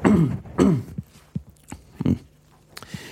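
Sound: throat clearing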